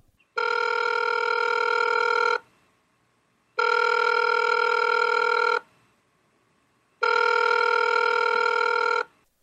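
An outgoing phone call to a congressman rings three times, each buzzing two-second ring followed by a steady pause of silence, clear with no one talking.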